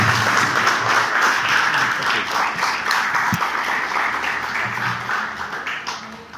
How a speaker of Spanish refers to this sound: Así que vamos a darle con un fuerte aplauso a recibir al doctor